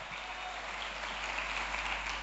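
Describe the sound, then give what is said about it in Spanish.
A church audience applauds the preached word together, a steady, dense wash of clapping hands that holds at an even level for a couple of seconds with no voices standing out. “A ver, crea un ambiente y aplauda esta palabra y diga, Señor, yo lo creo.”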